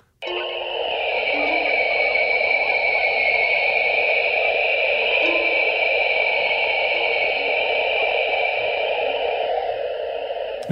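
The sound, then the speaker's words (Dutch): A steady, hissing electronic drone with layered tonal bands holds unchanged for about ten seconds, a data sonification of the Ring Nebula, 2000 light-years away; near the middle a brief, faint ting barely pokes through, representing the nebula's central star. “ergens midden in die opname, als je het weet, heb je eventjes een ting gehoord. Dat is de centrale ster die heel die nevel eh, veroorzaakt.”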